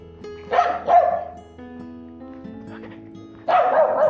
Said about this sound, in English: You get one that does that. doing his job. If his job is being the alert dog.